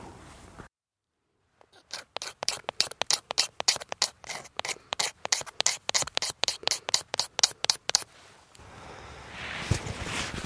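Rapid, rhythmic scraping as a fire steel takes shavings off a piece of fatwood and strikes sparks into the fatwood shavings, around twenty crisp, bright strokes in quick succession after a brief silence, then a softer rustling hiss trails off at the end.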